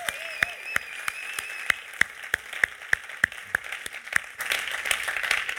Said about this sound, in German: Und geben wir diesen Locations mal einen herzlichen Applaus. So cool, dass ihr dabei seid.